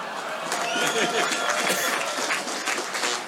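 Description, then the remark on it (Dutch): Thunderous applause from a large crowd of construction and infrastructure people gathered in the Netherlands, welcoming Maxime Verhagen, chair of Bouwend Nederland: a dense, steady wash of many hands clapping at once, loud and sustained throughout with no pauses. “Dames en heren, mag ik van u een davend applaus voor de voorzitter van Bouwend Nederland, Maxime Verhagen.”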